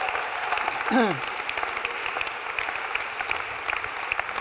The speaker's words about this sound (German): Gebt den Frankfurter nochmal einen Applaus.